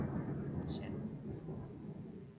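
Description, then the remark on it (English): A low, steady rumble of thunder rolls through for a couple of seconds, quiet, with a brief faint higher blip partway through. “Pause for lightning thunder.”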